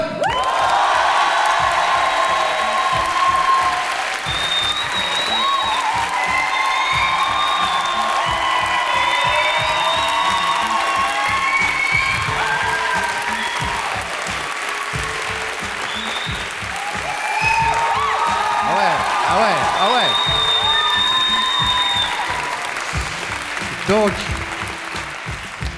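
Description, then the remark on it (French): A large live audience at the Palais des Papes in Avignon applauds steadily for about twenty-five seconds, with scattered whoops and cheers rising above the dense clapping, which fades slightly near the end. “Cela répond à la question est-ce que vous êtes chaud Donc oui.”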